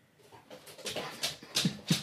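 A dog makes a few soft, short whimpering and snuffling noises, growing slightly louder toward the end, with no talking.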